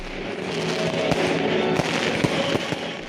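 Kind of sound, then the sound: sound effect, fireworks exploding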